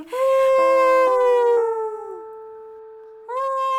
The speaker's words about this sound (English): But he took to howling at the moon, longing for what he could not reach but wanted more than anything.